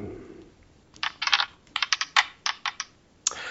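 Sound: dice being rolled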